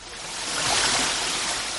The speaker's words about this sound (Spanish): porque una cascada natural interrumpe nuestra travesía por el bosque de los tilos. Este salto de agua es una de las mayores sorpresas que guarda La Palma.